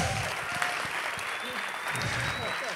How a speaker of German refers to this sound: Mal Applaus für euch, ihr habt echt gut geschwitzt.